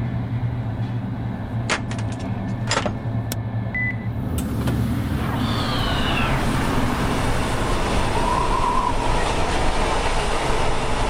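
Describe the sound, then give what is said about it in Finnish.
A moving freight train rumbles and rattles steadily on the rails, with sharp metallic clanks early on and a faint squeal partway through, loud and continuous with no talking. “Menosuunnan päädyssä vilkaisen ikkunoista edessä nytkyvää tavaravaunua.”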